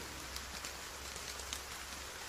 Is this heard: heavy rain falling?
yes